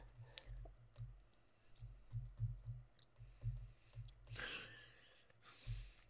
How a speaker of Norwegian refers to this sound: Fy faen, jeg hører sinna tygging.